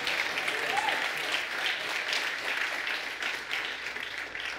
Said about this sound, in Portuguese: Oh, aleluia, dá um aplauso bem forte ao Rei da Glória. Um aplauso cheio de fé, de esperança.